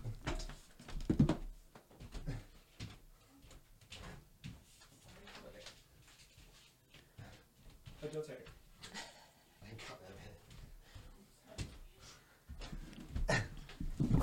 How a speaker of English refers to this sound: That was the dog barking.